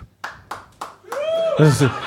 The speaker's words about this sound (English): Uh, like uh, for a round of applause.